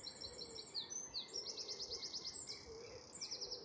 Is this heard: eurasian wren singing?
yes